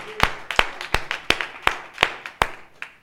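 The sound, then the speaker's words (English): A seated audience at a sermon claps hands together in a steady, even rhythm, about three sharp claps per second in unison, with a faint murmur of background noise between the beats. “Would you, would you just clap your hands as you're seated right now?”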